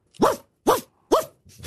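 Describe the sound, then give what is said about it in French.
A voice imitates a dog barking as part of a joke: three sharp, evenly spaced barks, followed by a softer, shorter fourth. No other sounds or talking. “Bon, c'est bon, c'est qu'un chien.”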